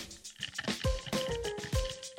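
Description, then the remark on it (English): Ice cubes jingle and clink a few times against a glass holding Tito's with water and lemon, each knock ringing briefly, with faint sloshing of liquid between the taps and no one talking. “my favorite little sound jingle of ice cubes in a glass, it's because I'm sipping on a Tito's water with lemon.”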